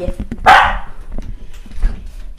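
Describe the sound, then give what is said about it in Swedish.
A dog gives one loud, sharp bark at a visiting stranger, then quieter rustling and faint background noise follow. “Nu är, en, nu är en främling på besök. Och där kom en... en alltså, är det där en hund?”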